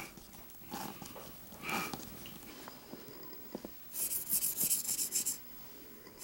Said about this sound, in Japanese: これは5枚の形紙を重ねて彫っています下書きは以前彫った型紙を写し取ったもので型紙は消耗品のため何度も同じ柄を彫ることがあります